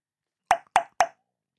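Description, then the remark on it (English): Three sharp, hollow palatal tongue clicks (the Q or cork-popping click) in quick succession, made by pressing the front of the tongue against the hard palate behind the front teeth and pulling it away; each a crisp cork-like pop with a brief resonant tail, spaced about a quarter second apart, with no other sound. “The Q click is known as the cork popping click or the door knocking click.”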